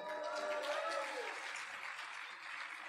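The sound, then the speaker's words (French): A crowd claps steadily and densely throughout, a sustained wash of applause with a brief whoop or cheer rising early on, as an audience applauds an electric guitar performance of Beethoven's Fifth Symphony. “Et si on applaudit vraiment fort.”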